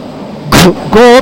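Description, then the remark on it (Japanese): A voice imitates a subway train rumbling into a station, with two short, loud, drawn-out "go" sounds in quick succession, with no real train noise evident. “ゴーって地下鉄入ってきちゃったけどさ聞こえるかな私の声聞こえてるのかな”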